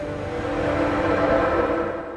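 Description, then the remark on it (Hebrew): Steady low rumble of a passenger train rolling along the tracks on a 12-hour ride to Rovaniemi through snowy forest, a continuous dense roar with a faint tonal hum, heard from inside at moderate loudness with no voices. “הרכבת עצמה היא עם אור בפנים, כדי שאנשים לא יירדמו, וכל עצירה הם עושים רעש, כדי שמי שבאמת צריך לרדת יתעורר ולא ימצא את עצמו בלפלנד.”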